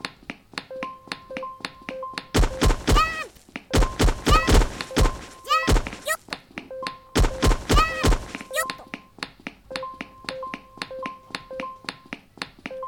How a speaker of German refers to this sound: Tut mir leid, wenn ihr jetzt immer den Sound hören müsst. Den Achtung, du bist bald tot.